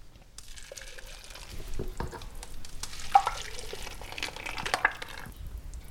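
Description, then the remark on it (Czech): A thick liquid mixture is poured into a box lined with baking paper, making a steady, splashy gurgle with occasional crinkles and light taps, continuous for several seconds with no talking. “To je pečící papír nebo potravinářská folie se tam může dát. Tak, nalejeme.”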